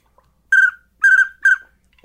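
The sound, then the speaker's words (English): A single small duck call whistle imitating wigeon and teal gives three loud, clear whistled notes at a steady high pitch, the middle one longest, with short pauses between and no talking. “Well, well, listen to that. Widgeon, teal.”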